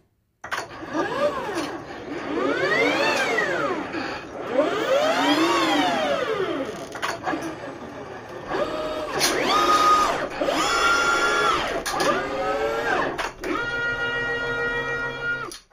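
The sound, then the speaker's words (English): An ABB industrial robot arm moves through a series of motions, its servo motors whining up and down in pitch with each sweep, fairly loud, ending in a buzzy pulsing hum. “Industrial Robot by Just Sound Effects features 142 recordings of an ABB industrial robot.”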